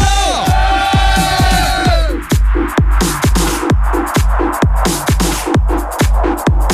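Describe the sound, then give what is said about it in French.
A studio crowd in the Fun Radio studio during the Party Fun show cheers and shouts loudly, with sustained whoops at the start fading into a steady roar, all over a pounding, fast dance beat with regular kick drums. “J'aimerais qu'on fasse du bruit dans le studio”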